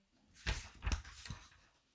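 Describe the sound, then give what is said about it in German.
A sheet of paper on a table is turned over, making three quick crisp rustles with soft thumps, then quiet. No one speaks. “Ich habe ein Papier auf dem Tisch und du das, jetzt haben das gehört, von einem Ecke in andere. Oder ich muss es umblättern.”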